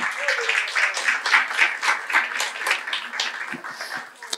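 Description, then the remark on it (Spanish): A church audience gives a round of applause to the Lord, applauding steadily for about four seconds, a dense crackle of many hands clapping with a few louder rhythmic peaks, fading slightly at the end. “Un aplauso al Señor.”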